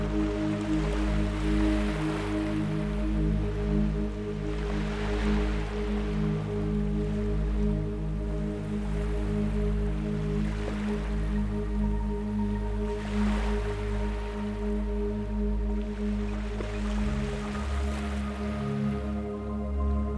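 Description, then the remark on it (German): Ocean waves wash in and out steadily, soft hissing swells rising every few seconds over a continuous low, humming drone, with no voices. “Schlafmeditation: Einschlafen mit Meeresrauschen”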